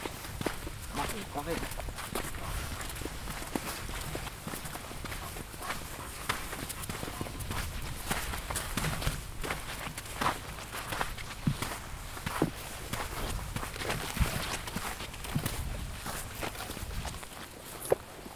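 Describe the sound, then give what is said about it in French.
Steady footsteps crunching over pebbles on an artificially built dike at Bauduc during a walk in October 2022, a continuous rhythmic grinding of stones underfoot at walking pace, with a faint breeze and occasional voices in the background. “C'est une digue sur laquelle on marche là. Le sous, c'est des galets.”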